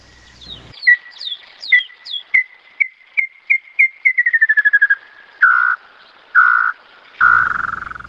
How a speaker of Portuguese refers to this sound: E agora aqui o Inhambu Chororó também para a gente ouvir.